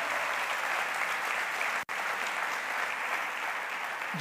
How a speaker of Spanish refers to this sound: Si va a aplaudir, aplauda al Señor esta mañana.